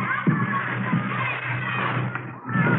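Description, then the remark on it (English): A busy wash of children's voices shouting and calling out in a schoolyard, steady throughout, with a few dull thumps mixed in, kids running around and yelling. “You start in a schoolyard like those kids down there, running around, yelling.”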